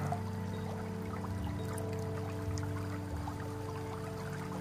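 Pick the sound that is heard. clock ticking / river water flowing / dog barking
river water flowing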